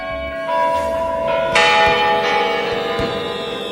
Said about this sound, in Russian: Тут, между прочим, сейчас куранты будут на Меркурий бить.